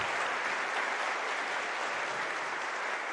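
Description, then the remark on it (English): Steady applause from an audience at Calvary Church fills the whole stretch, a dense wash of many hands clapping at an even level with no voices on top. “Let's give him a, a warm applause and thanks.”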